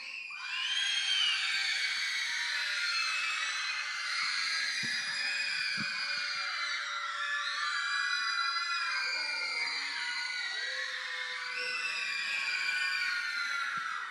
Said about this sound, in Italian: Lui mi ha detto così, i bambini, i adolescenti, i giovani, no? Chi darà l'urlo più alto riceve un regalo meraviglioso. Nel 3, 1, 2, 3.